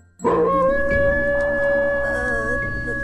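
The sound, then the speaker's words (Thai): A dog suddenly lets out a long, sustained howl that starts abruptly and holds steady and loud, with a slight wavering pitch toward the end. No one speaks. “จู่ๆก็มีเสียงหมาหอนดังขึ้น”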